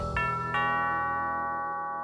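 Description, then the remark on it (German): A doorbell rings with two chime tones in quick succession, the second note lingering and slowly fading out. No one speaks. “Und dann klingelt er bei Annemarie N.”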